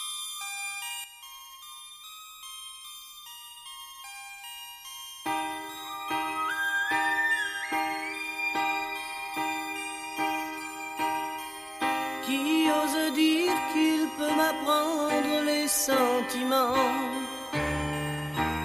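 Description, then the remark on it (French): The intro of a French pop hit song from an album, with soft sustained notes that give way to a steady, ticking rhythmic pattern and a rising melody, building to a fuller, brighter arrangement. No singing or talking yet. “On peut par contre s'écouter un autre tube de cet album, qui est justement le troisième tube de l'album,”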